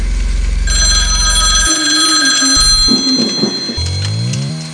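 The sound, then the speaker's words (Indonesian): A telephone bell rings steadily and loudly for several seconds, ringing for the second time, its bright metallic tone sustained over a low, shifting droning hum. “Tidak berselang lama, telepon kembali berdering untuk kedua kalinya.”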